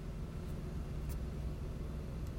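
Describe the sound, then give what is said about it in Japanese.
Steady low outdoor rumble, like traffic or wind, fills the background in a resort-like park with a basketball court in the morning, where many people are about and parents and children play basketball, with a few faint, brief higher clicks or knocks scattered through. No one speaks; the ambience stays even and fairly quiet. “今日はですね、ちょっと遠出をして、こないだ行った、あの、バスケットコートのある、オシャンティーなリゾート感あふれる公園からお届けしております。”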